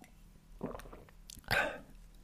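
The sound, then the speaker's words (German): A small sip of water: soft, wet mouth and lip sounds in two short bursts, the second one louder with a brief swallow, and no talking. “Nehme ich mal einen kleinen Schluck Wasser.”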